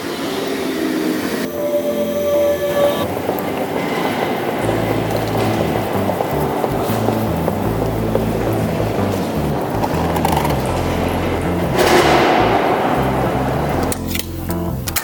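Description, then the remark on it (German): A regional train (RB) rumbles steadily at platform 1 of a station, with a brief high squeal early on and a swelling rush of noise near the end as it moves. No one speaks. “Gleis 1 einfach RB hoch”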